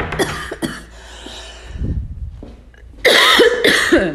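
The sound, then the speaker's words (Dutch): A person coughs and clears their throat in several harsh, raspy bursts after something catches in their throat, with a low throaty rumble in between and a loud run of coughs at the end. No words are spoken. “Dan schiet ineens wat in de keel.”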